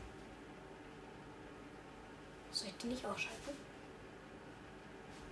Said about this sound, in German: Meine Xbox ist Motor geworden. Hört man das?